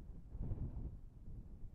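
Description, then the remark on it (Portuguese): Wind blows outside in a residential neighborhood during quarantine, a low, steady rumble swelling briefly in the first second before settling into a soft, continuous whoosh. The sound is quiet, with no voices. “Isso não quer dizer, claro, que não tenha barulho nenhum, mas a diminuição no movimento me faz perceber melhor os sons ao redor, até o vento.”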